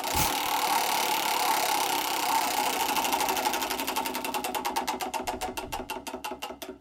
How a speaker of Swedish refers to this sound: Jag tänker att vi kanske hinner snurra på anekdothjulet ett varv till med Fredrik Wikingsson, eller hur? Ska vi snurra?